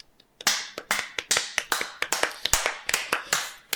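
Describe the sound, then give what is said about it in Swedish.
A short burst of hand clapping, around a dozen crisp claps in a quick, slightly uneven rhythm, fairly light and brief with no voices over it. “En liten applåd åt dig.”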